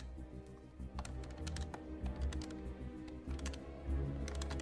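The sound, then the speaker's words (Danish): A quick series of soft, clicky taps of keys pressed on a phone keypad as Sebastian Klein's phone number is dialed, irregular in rhythm, over a low background hum with no one speaking. “tænker, at jeg vil forsøge at taste Sebastian Kleins nummer ind.”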